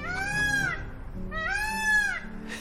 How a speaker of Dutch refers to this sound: En die. Die brul, die leek waarschijnlijk dus meer op iets wat, wat vogels doen.